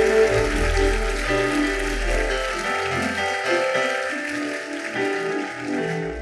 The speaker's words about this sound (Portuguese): Aplauda Jesus com vontade, irmão.